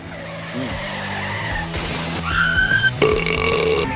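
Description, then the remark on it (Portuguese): A voice imitates a struggling tractor engine at work, with knocking connecting rod, labouring gears and jamming gearbox: a continuous guttural rumble that grinds and sputters, then breaks into strained, squealing tones near the end, fairly loud. “É, trator trabalhando com moicabana, até fundo de motor, biela batendo engrenagem penando, câmbio de trator engastaiando”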